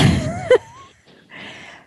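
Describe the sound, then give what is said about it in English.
A fly swatter lands with one sharp, loud, sudden smack, swatting a fly seen on a door, followed by faint rustling and soft background noise. “Oh, there's another fly, honey. I see it on the door. So um, I'll have to send in the one man SWAT team.”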